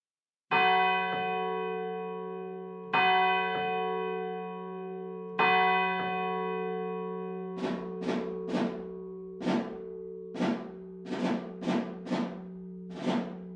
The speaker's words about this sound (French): À 5 heures, les cloches se sont mises à sonner à toute volée, comme quand il y a le feu.